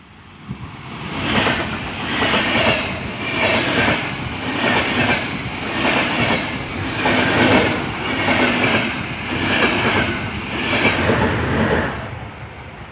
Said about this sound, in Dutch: Dat was de bullet train, of de Japanse hoge snelheidstrein die voorbij zoefde. Telkens die in een tunnel kwam, hoorden de omwonenden een harde knal die het gevolg was van luchtverplaatsing.